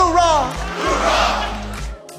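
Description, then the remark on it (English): An audience roars out a loud, unified "hoorah" while Kenn Kington is on stage, holding for about two seconds, many voices shouting together at full volume before it cuts off. “Well, you're listening to a very engaged audience as Kenn Kington is on the stage, and uh, what a great presentation today on Focus on the Family.”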